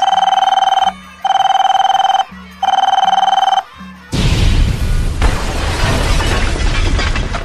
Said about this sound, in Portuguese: A partir do momento em que você liga pro número, ele dá três toques.